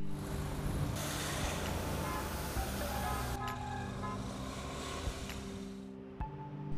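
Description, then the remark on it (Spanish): Dense rush-hour road traffic in Greater Concepción, people in private cars hurrying home, rumbles steadily with low engine drones and tonal hums from idling vehicles, the steady wash broken by a brief bump near the end; no voices are clearly heard. “Gente apurada por llegar a sus casas en sus vehículos particulares, Accidentes de tránsito que por muy pequeños que sean colapsan de inmediato no una sino varias arterias circundantes.”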